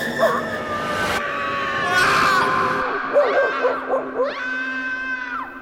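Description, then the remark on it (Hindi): An eerie, wailing cry rises and falls in long drawn-out tones, with sobbing pulses in the middle and a high sliding moan at the end, fairly loud against a dense ghostly background. “guys it's just मी कि तुम्हें भी कुछ आवाजें सुनाई दे रही हैं हाँ जैसे कोई रो रहा हो”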